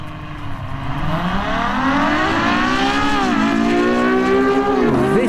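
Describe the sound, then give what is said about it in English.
A supercar engine revs loud, its whining note climbing steadily in pitch with a couple of brief dips like gear changes, running continuously for several seconds with no talking. “Now, when it comes to a, a, um, a supercar, a lot of people, and even myself, if I were to buy it, I'd be buying it for a sound like this.”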